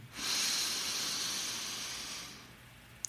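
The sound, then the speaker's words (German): A long, steady breath drawn in through the nose for four seconds as part of a square breathing exercise, a soft airy hiss that swells quickly and holds for over two seconds before fading, followed by a tiny click. “Das bedeutet, wir atmen vier Sekunden ein, und vom einen Punkt zum nächsten Punkt zu kommen.”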